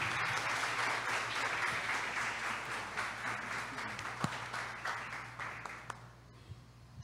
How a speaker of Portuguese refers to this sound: Vamos aplaudir nosso irmão